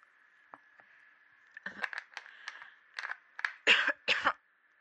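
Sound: coughing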